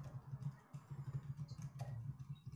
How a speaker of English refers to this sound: hear this man furiously typing. Oh, he is.